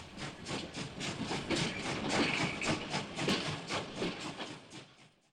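A train rolls steadily along the rails with a rhythmic clatter of wheels over track joints, fairly loud, before fading out at the end. No one speaks.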